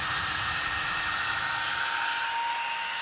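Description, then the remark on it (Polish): A cooling fan on its turbo setting roars steadily at high speed, a loud, continuous airy whoosh with a faint tonal whine running through it, unbroken throughout. “W turbo całkiem fajnie chłodzi. Całkiem też fajnie to słychać.”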